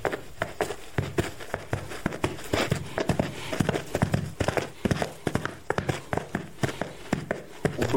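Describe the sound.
Steady clip-clop of horse hooves imitated by striking two funnels on soft forest ground, a continuous run of muffled knocking beats in a trotting rhythm with no talking.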